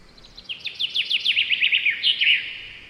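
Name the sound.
birds chirping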